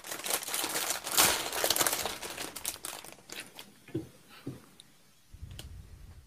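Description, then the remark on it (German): Crinkling and rustling of a plastic bag of customer-returned LEGO parts being opened, with dense crackles for several seconds, then a few sharper clicks of small loose plastic pieces shifting inside. “Und ich muss diese Tüte jetzt mal aufmachen, weil, also ich habe mit den Tüten noch nichts gemacht.”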